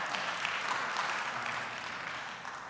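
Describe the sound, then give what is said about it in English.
Steady audience applause for a student who set her school's first pole vault record, clearing five feet five inches: a dense crackle of many hands clapping at once, sustained evenly for a few seconds and tapering slightly at the end, with no voices. “Yes, yeah, you should give her a round of applause.”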